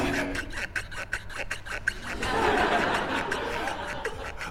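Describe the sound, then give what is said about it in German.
Goatskin leather shoes squeak and creak on pine floorboards in a quick, steady rhythm of short sharp bursts as someone steps in place, then a denser rustling scuffle takes over. “Ja, ja, ähm, dieses, dieses Ziegenleder auf den Kieferholzdielen.”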